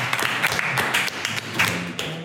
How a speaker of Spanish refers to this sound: Un aplauso para los de Durango, chicas.